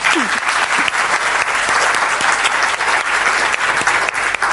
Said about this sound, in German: Und geben wir ja mal einen Applaus.